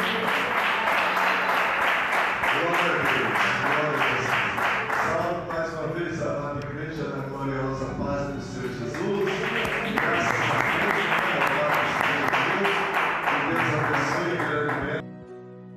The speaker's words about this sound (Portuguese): Palmas bem alegre para Jesus.